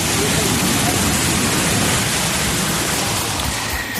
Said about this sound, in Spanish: Aquí en Madrid se han cortado varias líneas de metro e incluso calles del centro anegadas por el agua. Mira, no sé por dónde voy a cruzar.